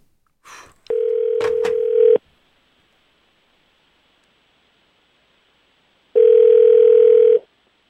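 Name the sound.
telephone ringback tone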